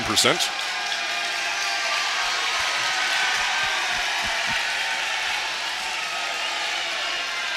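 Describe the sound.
The Harbor Beach basketball crowd cheers during a free throw in the fourth quarter as someone fires up the crowd, in a loud, steady roar that holds for several seconds, with a few sharp bursts at the very start and a dense wash of voices throughout.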